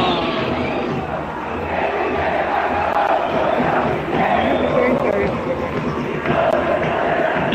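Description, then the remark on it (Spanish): A dense, steady roar of a large crowd, with many overlapping voices shouting and murmuring at once, loud and continuous with slight swells throughout. “Vaya la gente como vete bulla de fondo”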